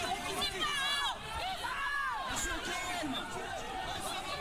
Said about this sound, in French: Le type essaie de s'échapper, il est violemment rattrapé par les flics, évidemment. Comme vous l'entendez, c'est très violent, il y a beaucoup de cris de protestation, énormément de monde.